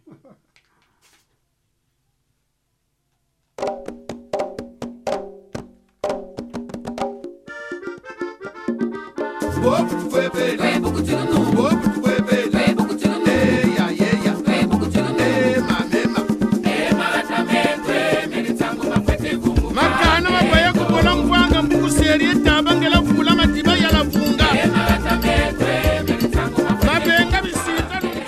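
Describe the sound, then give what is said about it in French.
A radio show theme jingle begins after a few seconds of silence with sparse, rhythmic tonal notes, then swells into full, loud, busy music that carries steadily to the end, with no talking. “Bon, on va écouter maintenant l'indicatif.”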